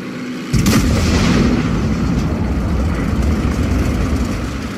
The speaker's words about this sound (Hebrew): תום לחץ על ההדקים, כדור אש נוסף טס מהתותח, הד הפגיעה הדהד עד לטנק.